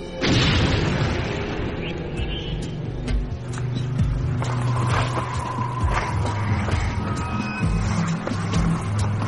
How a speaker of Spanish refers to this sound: la del susto yo creo que fue el primer bombazo. Ese es el típico sonido de la bomba que cae en tierra, que hace un sonido de, de bombazo, pero mudo, es el sonido seco de algo que cae en tierra.